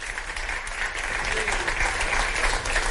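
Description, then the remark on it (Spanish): An audience applauds steadily for several seconds, welcoming the guest speakers of a panel discussion, a dense, even crackle of many hands clapping at once with no pauses, holding at a fairly loud level throughout. “Así que, por favor, Jordi Costa, un aplauso.”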